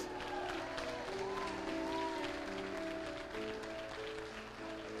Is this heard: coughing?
no